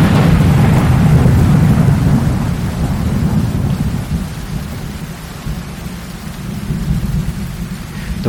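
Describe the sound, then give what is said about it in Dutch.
A thunderstorm with lightning over a country road near the German city of Erfurt in July 1501: a deep, rolling rumble of thunder swells loudly at first, then slowly fades beneath a steady wash of heavy rain. No voices. “Maar het regent en bliksemschichten schieten uit de wolken.”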